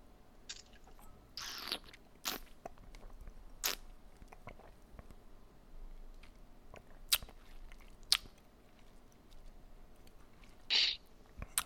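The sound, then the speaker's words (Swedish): Quiet mouth sounds of someone sipping Spanish brandy from a glass: two short slurping draws among scattered lip smacks and soft clicks, with no talking. “Vi tar en liten sipp här.”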